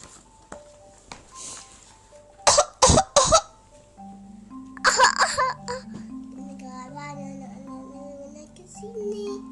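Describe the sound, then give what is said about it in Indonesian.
Three sharp coughs burst out in quick succession, followed a moment later by a rougher cluster of coughing, with soft sustained tones lingering in the background. “Batuk?”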